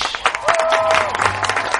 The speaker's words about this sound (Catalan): i amb un fortíssim aplaudiment rebem a serveis mínims ….